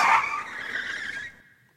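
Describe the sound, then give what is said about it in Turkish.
A loud, sustained screech of car tires skidding as the car carrying Halil Falyalı is suddenly cut off on 20 Temmuz Caddesi in Northern Cyprus, holding a high squeal for over a second before cutting off into a faint tail. No voices. “Falyalı'nın şoförü Murat Demirtaş arabayı 20 Temmuz Caddesi'nde sürerken bir anda aracın önü kesildi.”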